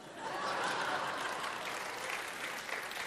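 An audience applauds steadily for about three seconds after a speaker presents a chart, a dense wash of clapping at an even level, with a hint of light laughter mixed in.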